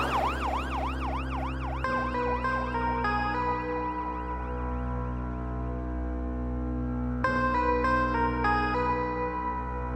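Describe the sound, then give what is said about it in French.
A loud ambulance siren rapidly warbles, then switches to blaring two-tone blasts over a heavy engine rumble as the ambulance speeds past at breakneck speed. No one speaks. “Quelques instants plus tard, une ambulance roule à tombeau ouvert, alors que la vie de Wayne willett ne tient plus qu'à un fil.”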